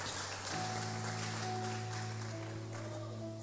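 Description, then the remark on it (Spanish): A church audience applauds as an offering to the King, in a steady, dense wash of clapping, with a sustained organ-like chord entering after a moment and holding beneath the applause. “Denle una ofrenda de palmas al rey.”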